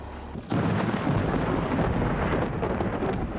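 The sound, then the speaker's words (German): A sudden roar of dense, crackling impacts begins after a brief quiet moment, sustained and loud: a hailstorm with thunder at the Swabian Alb, Germany, in 2013, with heavy hail pounding down amid rumbling thunder. No voices are present. “Gewitter mit Hagel verursachen die schwersten Schäden, wie dieses 2013 an der Schwäbischen Alb.”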